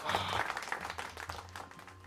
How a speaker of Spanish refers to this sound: ¿Cuáles son los aplausos? Ahí está.